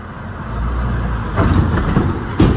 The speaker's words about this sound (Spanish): Es que vienen dos carros y ninguno se dio cuenta. Solo se ve cómo saltan los carros. Mira, ahí van, ¿ve? Ahí, vienen dos carros, No se ve el túmulo.